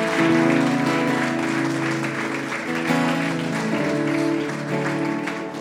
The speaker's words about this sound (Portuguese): Você pode aplaudir o Senhor aqui nessa manhã?